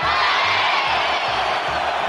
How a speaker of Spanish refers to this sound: Lo primero que ves cuando ves algo es una plaza llena de gente que te grita como si te conociera.